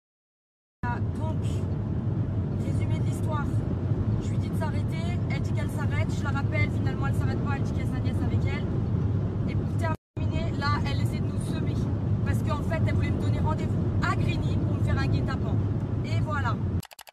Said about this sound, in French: l'autoroute en pleine course-poursuite